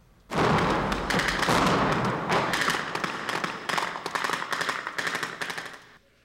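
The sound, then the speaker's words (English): A loud, sustained barrage of gunfire and explosive blasts during a training exercise, starting abruptly with a heavy boom and continuing as rapid, overlapping bursts and cracks before cutting off. No voices. “During the exercise, the noise was deafening. These explosions give us the feel, the blast, the heat.”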